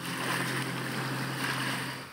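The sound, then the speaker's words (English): A small Ukrainian military sea drone boat's engine roars steadily across open water, a continuous loud hum with splashing spray and wind noise over it, without a break. “One of the newest pieces of Ukraine's arsenal is lowered into the water. It roars out into the open water”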